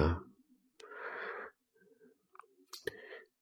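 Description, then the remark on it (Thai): A single slow, breathy exhale during anapanasati breathing meditation with loving-kindness, lasting under a second and slightly wheezy, followed by faint mouth clicks and soft rustles. “หรือในการกำหนดลมหายใจนะปลายจมูกและจุดใดจุดหนึ่งในกาย หายใจเข้าด้วยเมตตา หายใจออกด้วยเมตตา”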